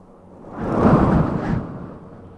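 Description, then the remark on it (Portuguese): A gust of wind rustles through tree leaves, a soft hiss that swells over about a second and then fades away, with no voices. “ouça o vento e perceba os sons e ruídos que as folhas fazem enquanto são tocadas pelo vento.”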